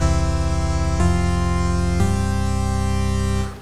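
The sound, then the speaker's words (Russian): A loud, steady electronic siren tone signalling that something has happened, with a buzzy, harmonic-rich sound, shifting pitch slightly twice at one-second intervals before cutting off after about three and a half seconds. No one speaks. “Нам уже тут пищит какая-то сирена, что что-то случилось.”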